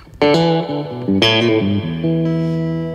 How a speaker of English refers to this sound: But um, I started on Fender amps, and that was one of my favorite things about them was like the vibrato oh. and the spring reverb, and so, you know, you can really, um, really get a good spring reverb.